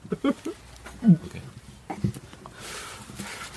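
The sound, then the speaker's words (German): Several harsh, guttural retching heaves coming in uneven bursts, followed by a wet, splattering hiss as currywurst comes back up. “Ja, die Currywurst kam wieder hoch.”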